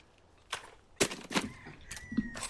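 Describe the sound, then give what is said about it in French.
Several sharp gunshot blasts from a video game, fired at an approaching opponent, spaced irregularly over a few seconds, with a brief whooshing tone and faint background game sounds between shots. “Mais là, regardez, il y a un mec qui arrive. Gun, bam, bam, bam. Non, boum Incroyable.”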